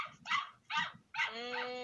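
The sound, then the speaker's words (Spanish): Small pet dogs let out two sharp barks a moment apart, followed by a longer, high-pitched whimpering whine that carries on to the end. “Eh, disculpen el ruido de mis perritos, ¿eh?”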